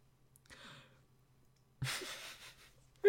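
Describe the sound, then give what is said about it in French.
A yawn: a soft breathy exhale, then after a pause a louder, drawn-out airy yawn, with a faint low hum in the background. “On est en train de se, contaminer en baillant.”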